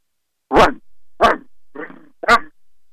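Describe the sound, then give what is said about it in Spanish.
A dog barks four times at an uneven pace, loud, with the third bark noticeably softer and rougher than the others. No voices accompany it. “Cuidado, hay un perro, dejémoslo ahí, dijo un señor de la caravana.”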